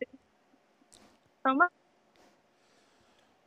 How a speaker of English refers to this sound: You're breaking us. You're breaking up on us a little bit. I'm going to blame my uh, cell phone coverage.